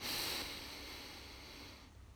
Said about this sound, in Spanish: Y vamos a comenzar. Vamos a comenzar tomando una respiración profunda, inhalando